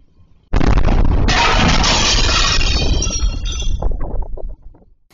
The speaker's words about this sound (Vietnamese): Tại đây họ đã dùng cưa điện để cưa bơm nên dẫn đến vụ nổ kinh hoàng. Dù cách hiện trường vụ nổ 500 m nhưng camera một nhà dân ghi nhận tiếng nổ cực lớn và một cánh cửa nhà bị áp suất đẩy tung ra vỡ toàn bộ mặt kính.